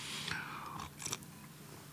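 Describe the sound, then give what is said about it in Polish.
An airy slurp of a drink, made on purpose, lasting about a second, followed by a couple of faint mouth sounds and quiet; no one speaks. “Przepraszam, siorbnąłem specjalnie, żebyście Państwo słyszeli, mm, e, że piję.”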